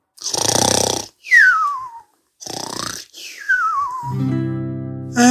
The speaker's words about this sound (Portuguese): O único som que se ouvia era o ronco do amigo.